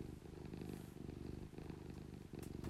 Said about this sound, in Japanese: ぬーちゃん今日チュールもらってないからうるさいんだなねえはい、えーと、ちょっと猫たちが入り乱れておりますが